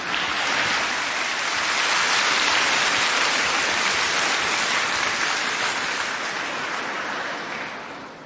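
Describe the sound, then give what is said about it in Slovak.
A large audience applauds in a dense, sustained wash of clapping that holds steady for several seconds before tapering off at the end. No one speaks over it. “Už sme si zvykli na potlesky, to je pravda.”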